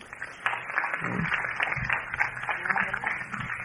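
Steady applause for a woman lasts several seconds, a dense crackle of many hands clapping at once, even in loudness with no voices standing out.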